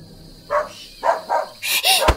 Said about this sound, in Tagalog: Dali-dali akong pumunta sa likuran ng bahay at nakita kong tumatahol ang aso sa bahagi ng lugar kung saan naroroon ang aking pinakatago-tago.